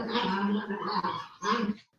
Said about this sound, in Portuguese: os cachorros estão. Ba... Nossa, eles estão quitando.